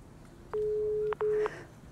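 A telephone ringing tone heard down the line before a voicemail answers: a steady, clear electronic tone for about half a second, a brief gap, then a shorter second burst, over faint background hiss.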